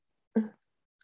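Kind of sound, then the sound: animal, dog whimpering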